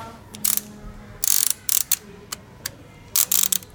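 Rapid bursts of sharp mechanical clicking and ratcheting from a large electromechanical telephone switchboard switching between lines as a wheel is pulled, several irregular clusters of clatter with a faint low hum between them.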